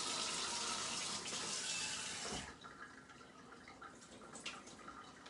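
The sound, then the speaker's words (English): A tap runs in a steady, full hiss for a little over two seconds as water is drawn for making pizza dough, then shuts off, leaving a quieter stretch with faint drips and small sounds. “All I know is I need a little, a little bit of water, um, a little bit of yeast.”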